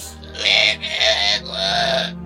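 Three drawn-out, shrill creature cries in quick succession, each wavering and harmonically rich, sounding somewhat distant over a constant low rumbling hum, with no one speaking.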